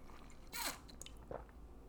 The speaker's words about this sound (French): Si tu veux prendre une gorgée, là, go.